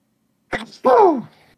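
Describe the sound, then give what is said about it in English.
A single sneeze: a sharp breathy burst followed by a loud voiced, falling "choo" that trails off, with silence around it. “Bless you.”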